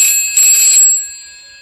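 telephone bell ringing

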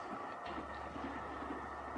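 train running on rails

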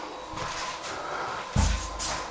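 door being opened

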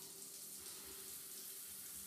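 shower water running

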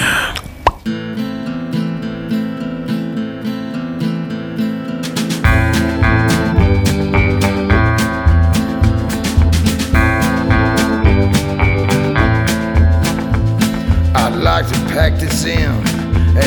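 music playing

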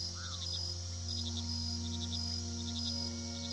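night

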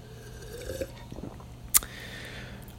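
sipping coffee

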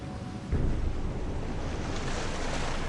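ocean waves

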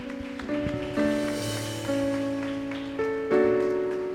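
audience clapping hands

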